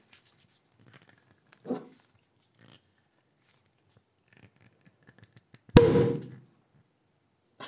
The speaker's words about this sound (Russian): Я, я мастер э, бесшумного открытия бутылок. Ну, ты ее так заболтал сейчас, что я волнуюсь.